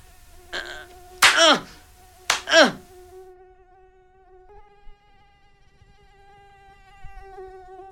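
A steady, thin whine of mosquitoes drones on throughout at night, wavering slightly in pitch, interrupted early by a few short loud bursts like swats or sharp breaths before the buzzing continues alone.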